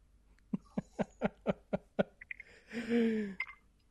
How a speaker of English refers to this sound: I hear you drinking over there. it's water. It's water.